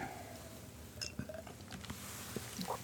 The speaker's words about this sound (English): Excuse me while I take a sip of tea here. I love tea.